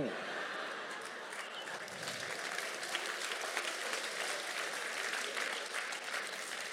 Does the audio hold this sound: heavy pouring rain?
no